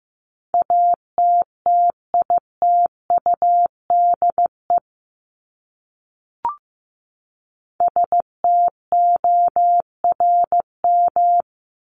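Morse code beeps at 15 words per minute: a single mid-pitched tone keyed into short and long pulses, in two runs separated by a pause with one faint click.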